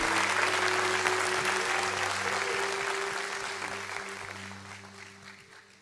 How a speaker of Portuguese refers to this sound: Amém. Amém. Você pode aplaudir o Senhor, exaltá-lo, engrandecê-lo.